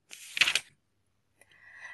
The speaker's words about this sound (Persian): وستا کتاب رو ورق زد.